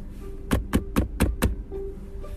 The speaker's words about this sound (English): he knocked on the door.